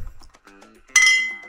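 A single bright glassy clink as two beer bottles, one a Victoria, knock together in a toast, ringing out loudly and decaying over half a second, preceded by a few faint tonal taps and rustles.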